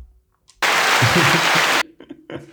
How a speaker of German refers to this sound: Dus uh, applaus.